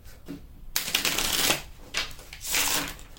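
Tarot cards being shuffled: after a brief quiet start, a crisp, papery riffling rises in two busy waves, with rapid soft snaps and no voices.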